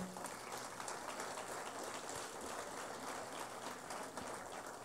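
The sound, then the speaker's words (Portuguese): An audience applauding Jesus steadily, a dense crackle of many hands clapping at once that keeps an even, moderately loud level for the whole stretch, with a faint murmur of voices underneath. “Para cá, meu querido, vamos aplaudir Jesus pela sua vida.”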